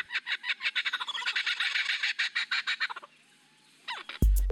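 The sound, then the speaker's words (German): A lyrebird, a bird that can imitate voices and sounds, sings loudly, a rapid stream of varied, repeated calls and mimicked squawks for about three seconds, then falls quiet before a sudden noisy burst at the very end. “Das ist ein Vogel, der Stimmen und Geräusche imitieren kann.”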